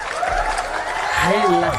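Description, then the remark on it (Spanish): Steady, dense clapping welcoming a new producer fills the whole stretch as a continuous crackling wash of applause, with a voice starting to speak over it toward the end. “Hombre, aplausos, aplausos.”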